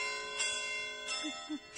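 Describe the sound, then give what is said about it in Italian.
Church bells ring with a sustained, overlapping hum of tones, struck again every so often, moderately quiet, with no one speaking. “Aspettate che qua si sentono delle campane, scusate un attimo”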